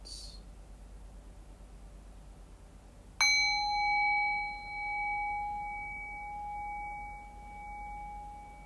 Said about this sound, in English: And so, in the next breath or two, I'll ring the sound of the bell. So, the invitation here is to rest awareness on the decay of the bell. Allow the bell to guide your awareness into silence.